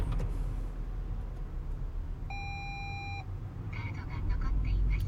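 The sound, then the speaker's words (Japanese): A single steady electronic reminder beep from an in-car ETC unit sounds for about a second over a low car-interior rumble, followed by a brief voice-like announcement that the ETC card is still left in the unit, after the car's engine is switched off on arriving home. “カードが残っています。”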